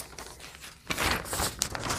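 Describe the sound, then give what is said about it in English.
Ten sheets of coffee-dyed college ruled paper rustle and shuffle as they are counted out, quiet at first and then a louder, continuous crinkly handling sound with a few sharper flicks as pages are moved. “okay, so next we want to take 10 sheets of, I'm using co- coffee dyed college ruled paper.”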